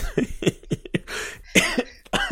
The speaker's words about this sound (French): Ça me fait tousser. Je, me suis étouffé.